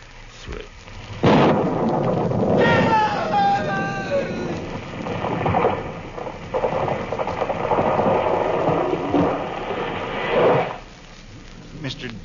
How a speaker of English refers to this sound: It was lightning. It struck the tree.